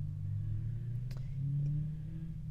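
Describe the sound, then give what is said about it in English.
Old car engines drone and rev steadily as the cars race each other, their low throaty rumble shifting in pitch as they accelerate. The sound is continuous, with no talking. “Um, and so, sorry, there's like these old cars that all decided to race each other right now.”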